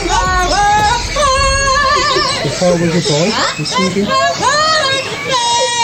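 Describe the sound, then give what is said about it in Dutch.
A 9-year-old parrot at a nature reserve in Boston, USA, imitates a pop singer, belting warbling, melodic phrases with sweeping pitch slides and wavering notes, loud, running continuously for about six seconds. “Ja, dit is de papegaai dit, hè?”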